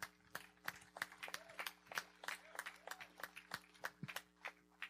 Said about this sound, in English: Amen. Let's give the Lord a hand clap.